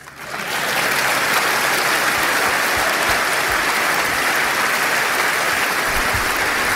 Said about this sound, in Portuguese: Novo aplauso de pé para Paulo Portas.